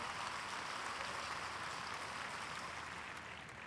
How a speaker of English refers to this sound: Give a strong applause to the Lord before you sit down.